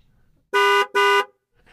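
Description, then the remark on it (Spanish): Two loud, short car horn honks in quick succession, honked at a driver in front at a traffic light, each a bright blaring tone lasting about a third of a second, with quiet background before and after. “Ahora, si no cambia la luz, si, eh, está este otro bocinazo.”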